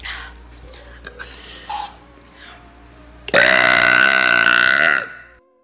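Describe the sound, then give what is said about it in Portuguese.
A long, loud burp with a rough, resonant rasp, lasting nearly two seconds and ending abruptly, preceded by a few softer, quieter sounds. “Vamos, vamos ouvir uns arrotos aqui então, porque é sempre bom.”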